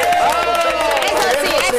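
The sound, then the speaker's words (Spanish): A short burst of loud, steady applause with cheering voices mixed in, a dense wash of clapping and shouts that holds at one level throughout. “También quiero un aplauso para la gente que nos escribe al sinrollófono 13.”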